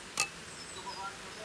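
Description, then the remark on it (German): A single bright clink of glasses touching as people toast with craft beer while it starts to rain, with a brief high ringing tail fading against a quiet background hiss. “Äh, wir, wir prösterchen uns einfach mal an, ne?”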